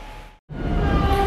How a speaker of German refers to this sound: So, also wir sind gerade durch den verschneiten S-Bahnhof Grünau gefahren.